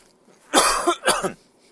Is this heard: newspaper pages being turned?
no